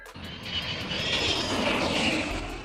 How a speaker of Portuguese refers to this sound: Peraí que vai passar um avião agora aqui. Aqui também tá passando, ó.